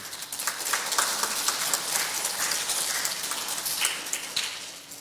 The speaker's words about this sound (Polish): Ja chciałbym, żebyśmy teraz oddali chwałę Jezusowi. Zróbcie brawa dla Jezusa.